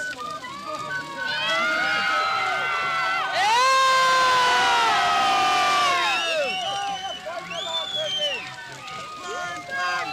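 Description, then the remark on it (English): A large crowd at a bonfire cheers and shouts as an Irish tricolour flag falls into the flames, many voices whooping and yelling at once. The roar swells loudly after a few seconds, then gradually thins into scattered shouts. “so that cheer was for that cheer was for the tricolour finally fell among the flames, just the way the Anglo-Irish agreement's going to fall.”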